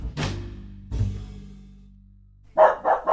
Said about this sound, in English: Uh, Lucy, quiet. Oh, gosh, I might have to let the dog out.